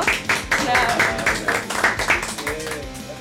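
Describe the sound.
A small group claps in a steady, fairly quick rhythm for a few seconds, the claps moderately loud, with faint voices murmuring underneath. The applause welcomes a music group as guests on a show.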